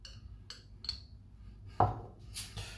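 A small spoon clinks and scrapes inside a jar of Löwensenf mustard, with a few light taps, one sharper knock, then a brief gritty scrape as mustard is scooped out. No one speaks.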